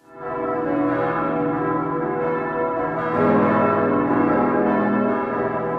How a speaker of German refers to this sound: Die Glocken vom Berner Münster. Sie läuten Tag ein, Tag aus, mal länger, mal kürzer – Besonders so an den Festtagen, Ostern, Weihnachten, Silvester.